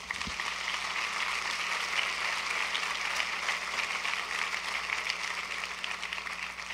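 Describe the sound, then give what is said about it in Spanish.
An audience applauds steadily, giving applause to Jesus, a dense wash of many hands clapping at an even, sustained loudness for several seconds with no one speaking. “Podemos darle un aplauso a Jesús.”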